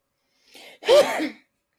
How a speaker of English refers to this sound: Bless you. Bless you.